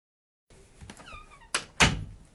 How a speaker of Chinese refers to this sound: 留下一句话，宋毅把门关上走了。